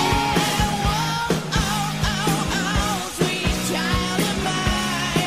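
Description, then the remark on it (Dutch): A 1987 rock song plays loud, with a steady driving drum beat, a wailing lead guitar line and a full band sound throughout, with no talking over it. “We begonnen met dit nummer, typisch jaren 80.”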